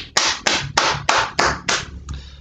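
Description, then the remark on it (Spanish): A short round of applause: about six sharp hand claps in a steady, even rhythm, ending with a softer final clap. No one speaks. “así mismo un aplauso.”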